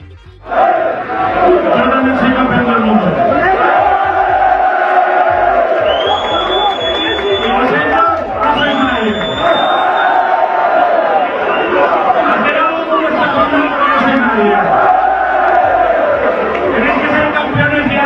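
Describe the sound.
A large crowd shouts and chants together in loud, sustained waves, voices overlapping into a rhythmic roar with brief high whistles cutting through.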